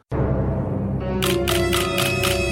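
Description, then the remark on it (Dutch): A short segment jingle starts abruptly with a steady, full tonal bed, then about five rhythmic camera-shutter-like clicks land in even succession over it. No one speaks. “Hebben we daar tegenwoordig ook een eigen tunetje voor trouwens?”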